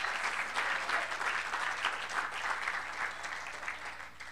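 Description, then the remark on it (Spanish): An audience applauds steadily for several seconds, a dense, even wash of many hands clapping at once with no voices standing out above it. “Démosle un buen aplauso al Señor, hermano.”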